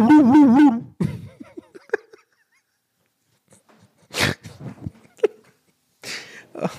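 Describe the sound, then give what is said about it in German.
A voice hums a short, warbling buzz-like tone imitating the upstairs doorbell of a home intercom, lasting about a second, followed by soft laughter, breathy exhales and a few scattered vocal sounds. “mir fällt gerade wirklich auf in diesem Moment, dass ich selber nicht mehr weiß, wie genau das klingt, meine Klingel.”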